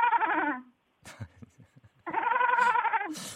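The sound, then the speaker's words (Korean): A person imitates a goat, letting out two long, quavering bleats separated by a short gap filled with faint breathy sounds, the voice wavering and nasal. “염소 울음소리 갑니다.”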